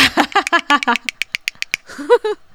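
A quick run of sharp hand claps, about a dozen in a steady rhythm, mixed with vocal sounds at the start, then a brief voiced sound or laugh once the clapping stops.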